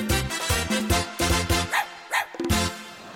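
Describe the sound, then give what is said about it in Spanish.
A dog barks loudly in a quick, steady series of about a dozen sharp barks, with a couple of higher, whiny yelps near the end. “Agarra tu perro. Pero la ven para acá.”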